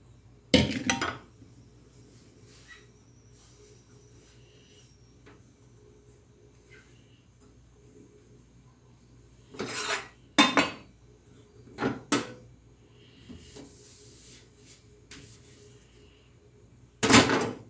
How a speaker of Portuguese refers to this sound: Então, acabou a receita? Fecha a panela e manda ver.